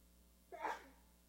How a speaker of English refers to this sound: Bless you. Community. You sneeze, I bless.